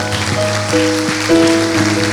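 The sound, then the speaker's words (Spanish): A church audience claps together to praise the Lord in a dense, steady patter of many hands, while sustained keyboard notes hold underneath and shift pitch a few times. No one speaks. “¿Qué tal que si todos juntos aplaudimos al Señor?”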